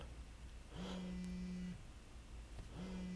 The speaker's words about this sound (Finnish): Ja vaikka se olisi kännykän pärinä, Steffe soittaa.